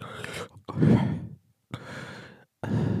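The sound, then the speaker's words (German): A voice imitates the heavy, muffled breathing of astronauts inside their helmets: four loud breaths in and out, each a breathy rush separated by short silent pauses. “Und aber man hört dann halt immer den Sound vom in dem, von in den Helmen drin, ne?”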